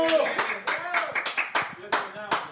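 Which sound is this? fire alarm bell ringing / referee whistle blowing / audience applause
audience applause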